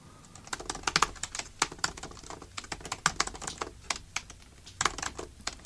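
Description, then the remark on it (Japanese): Rapid typing on a computer keyboard, a steady stream of crisp key clicks with uneven rhythm and brief pauses, heard alone without any voices. “しばし先生のタイピング音をお楽しみください、はい、しばしタイピング音ね、はい、はい、僕のタイピングをもっと聞きたい”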